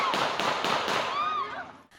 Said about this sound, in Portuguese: No Rio de Janeiro, uma câmera gravou a morte de um policial militar. Ele estava numa festa em comemoração ao Dia dos Pais e foi baleado por um guarda civil. A praça estava cheia quando os tiros começaram.